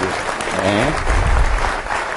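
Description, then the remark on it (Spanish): Steady, dense clapping from an audience for someone who answered a question fills the whole stretch, a continuous patter of many hands. A voice briefly rises over it early on, then the applause carries on alone. “Un aplauso, por favor.”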